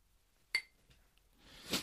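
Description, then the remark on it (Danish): Two crystal glasses holding rum and whisky clink together once in a toast, with a bright ringing tone that fades quickly, followed by a soft rushing, breathy noise near the end. “Skal vi skåle? Skål.”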